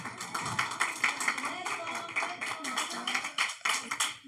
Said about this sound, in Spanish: Un aplauso, por favor.